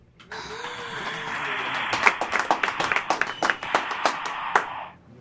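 A burst of applause from a small group, a steady wash of clapping with several sharper, closer claps popping out before it cuts off abruptly.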